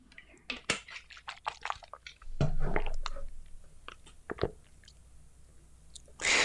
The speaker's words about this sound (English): One second, let me drink water.